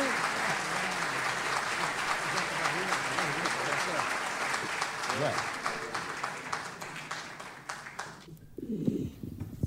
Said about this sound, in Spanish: A ver, para que se le vaya la timidez, vamos a aplaudirlo por lo menos.